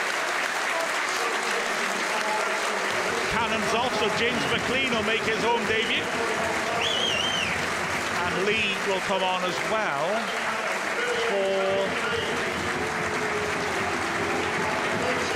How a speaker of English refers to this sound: McClean gets a huge reception from the Wrexham fans who stand to acknowledge it as he goes over to left wing back.